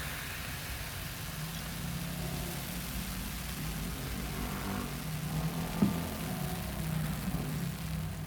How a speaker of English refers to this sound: perhaps you can hear the rumbling of East London in the background. It's not a quiet place, but we like it.